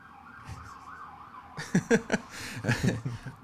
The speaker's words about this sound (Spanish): Uh, ahí viene la oh. sirena.